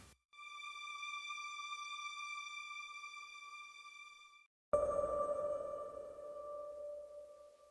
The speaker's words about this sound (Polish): Te mgliste, senne plumknięcia to konglomerat trzech różnych brzmień, z których jedno to cyfrowa emulacja fortepianu poprzez zmniejszenie twardości młotków, zaprogramowanie najniższego możliwego poziomu velocity, dodanie filmowego pogłosu